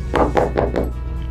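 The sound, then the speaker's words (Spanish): Four quick, evenly spaced knocks on a hotel room door at night, dull and thudding, followed by a short quiet pause with no voices. “Entonces, eh, para el último día, para el penúltimo día en la noche, empieza este, a tocar, ¿no? así de... Y yo, ¿qué onda? Y me asomo por la mirilla y nada.”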